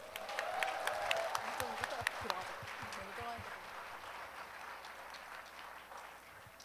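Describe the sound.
An audience claps steadily for several seconds, a dense patter of many hands with a few voices mixed in, easing off slightly toward the end, welcoming a vocal ensemble of pastors' wives from the Daegu area at a performance.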